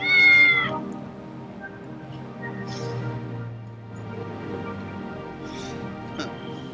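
A cat meows loudly at the start, then keeps up a long, drawn-out, wavering mewl with a few higher-pitched cries near the end.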